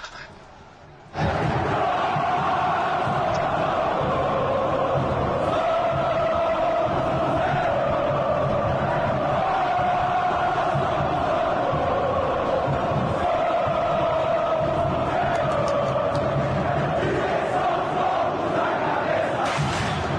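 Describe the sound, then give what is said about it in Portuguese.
A large stadium crowd of Geral Celeste supporters in the upper yellow sector (Amarelo Superior) sings a football chant in unison, loud and sustained, the massed voices holding a steady melodic line after a brief quiet opening, with no break for twenty seconds. “E logo depois a Geral Celeste, uma torcida mais recente, foi pro setor superior, amarelo, que hoje é chamado Amarelo Superior, e aí a música embalou de vez. Vamos ouvir?”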